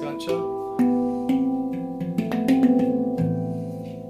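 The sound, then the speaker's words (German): A handpan, an A2 Mystic made by Doublé, rings out with a series of struck, sustained metallic notes, each tone overlapping the last in a slow melodic pattern, fairly loud with no talking. “So, ich spiele auf äh, der A2 Mystic von Doublé”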